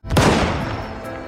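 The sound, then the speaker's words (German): A single loud rifle shot from poachers shooting a mother tiger cracks out, its booming report rolling away in a long, echoing tail that fills the rest of the moment. No voices are heard. “Und das ist Schicksal, denn er wird Zeuge davon, wie Wilderer eine Tigermutter erschießen.”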